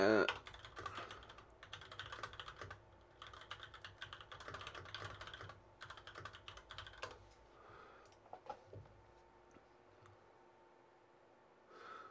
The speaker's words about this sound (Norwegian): uh, men jeg gjorde switchen uh, nå nylig. Eller nå nylig, det begynner vel å bli et år siden nå, tenker jeg. Til uh, til Raude. Jeg kjøpte meg nytt tastatur.